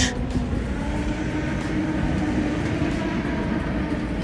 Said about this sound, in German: Da kommt noch ein Zug. Interessant. ja. Der Zug ist mega, mega lang.